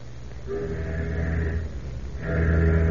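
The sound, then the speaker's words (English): Deep, droning tanker ship's horn sounding warning blasts at a submarine, two long sustained hoots with a short gap between them, loud over a low background rumble. “Suddenly, the tanker sounded three warning blasts.”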